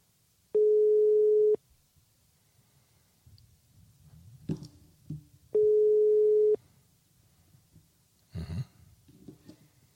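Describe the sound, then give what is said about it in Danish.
Two loud, steady telephone ringing tones, each about a second long and spaced several seconds apart, with soft breathing and faint rustles in the quiet gaps between them. “Prøv, at lade ringe, lad ringe.”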